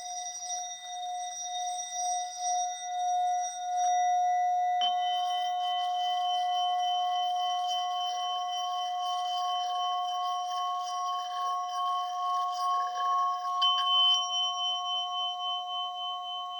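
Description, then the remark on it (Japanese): An orin singing bowl is rubbed around its rim, building a sustained, shimmering metallic ring with steady bright overtones that swells and holds for the whole stretch, with no talking. “おりんをこすって鳴らしてみた”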